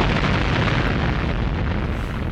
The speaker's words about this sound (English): Another explosion.